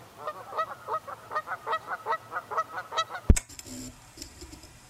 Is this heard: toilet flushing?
no